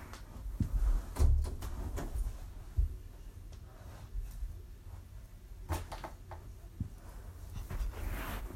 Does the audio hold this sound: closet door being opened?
yes